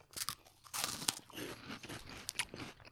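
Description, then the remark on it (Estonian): Crunching on a salty potato crisp flavoured with jalapeño and wasabi: a quick series of sharp, crackly bites and chews, bright and brittle, with no talking over them. “nojah, niisugune soolane krõps.”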